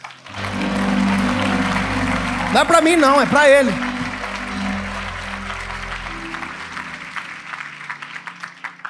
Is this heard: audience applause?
yes